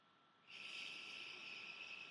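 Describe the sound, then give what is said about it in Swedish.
A computer cooling fan hums and whines steadily, a faint continuous drone that rises in after a brief near-silence and holds evenly to the end, with no talking. “Och nackdelen är att när jag är tyst, vilket i och för sig sällan är, så hör man fläkten från datorn.”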